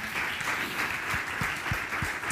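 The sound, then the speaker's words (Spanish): An audience applauds Jesus and the Holy Spirit in a dense, steady wash of clapping, with a few heavier beats pulsing through it at a regular rhythm. No one speaks. “¿Puedes darle un aplauso a Jesús, al Espíritu Santo?”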